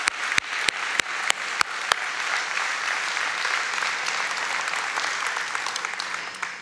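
A crowd breaks into steady, dense applause that holds at an even level throughout, with a few sharp, louder individual claps standing out in the first couple of seconds.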